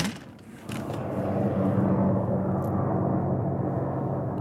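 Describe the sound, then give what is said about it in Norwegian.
A heavy, continuous mechanical rumble rises in after a brief quieter moment and holds steady and loud, like a helicopter or large war machinery droning with a rough, throbbing low end. “Eh, lyden av sånn helikopter og krigsmaskiner.”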